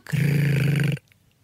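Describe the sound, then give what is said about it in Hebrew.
A person imitates the purr of a pet cat with a single low, steady, buzzing rumble lasting about a second, loud and alone, with a slight fluttering pulse before it stops abruptly. “היא מגרגרת ככה?”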